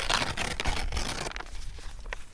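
A sheet of paper is ripped apart in one long, raspy tear lasting over a second, followed by a few short crackles and rustles as the pieces are handled. No one speaks.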